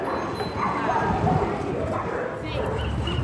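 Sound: dogs barking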